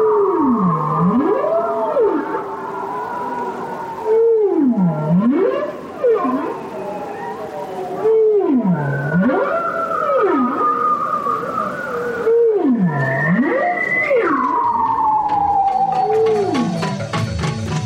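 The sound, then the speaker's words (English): Whale vocalizations under sea ice: a repeating pattern of deep, swooping moans that dip and rise roughly every four seconds, layered with higher sliding tonal cries, loud and continuous with no talking. The whales use the sounds to communicate and to make echoes off the ice and the bottom to navigate. “whale can be responsible for so many distinctive and complex sounds. And they're using these to communicate with each other, and they're also using these to produce echoes of sounds off the ice and the bottom in order to navigate through the ice.”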